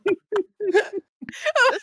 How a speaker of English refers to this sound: I'm getting hiccups.